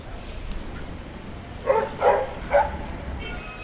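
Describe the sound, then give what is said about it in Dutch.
Three sharp dog barks ring out in quick succession as four dogs walk past in the street outside a terrace, set against a steady low rumble of street noise. “Nu komen er net weer vier honden langs gelopen.”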